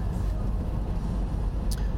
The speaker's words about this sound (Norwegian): Og det vet ikke om du hører det, men jeg kjører bil. da.